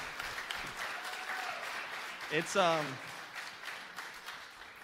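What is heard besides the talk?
audience round of applause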